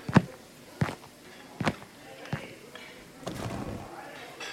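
Footsteps of a person walking to a fast food counter at a steady, unhurried pace, each step a firm thud, with a faint hum of background activity between them.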